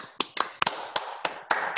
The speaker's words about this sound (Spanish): Y pues sin más ni más, quisiera que recibiéramos con un fuerte aplauso al maestro